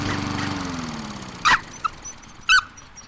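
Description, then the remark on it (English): A lawn mower engine, used to mow the yard, runs with a steady, low droning hum that gradually fades, while two short, sharp bursts, like barks or squeaks, break in over it. No one speaks. “Jerry went out to mow the yard.”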